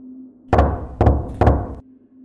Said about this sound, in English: This time, the knocks were louder, and the time between each separate knock was greater.